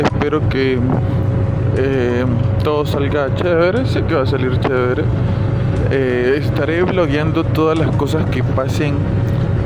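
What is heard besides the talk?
car interior road noise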